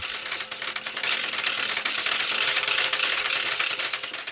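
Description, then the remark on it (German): Wooden ratchet rattles cranked by children in Pschlaps, taking over the task of the church bells by pious custom. A dense, continuous clacking with fast rapid-fire ticks, loud and steady throughout with no talking. “Gleichzeitig will ein frommer Brauch, dass Rätschen die Aufgaben der Glocken übernehmen. Krachmaschinen aus Holz, die Kinder aus Pschlaps bedienen.”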